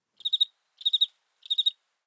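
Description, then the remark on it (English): Three evenly spaced cricket chirps, each a quick trill of a few high, shrill pulses, ringing out clearly against otherwise total silence. “Crickets.”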